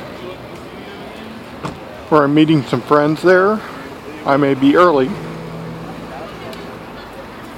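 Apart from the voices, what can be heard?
city street traffic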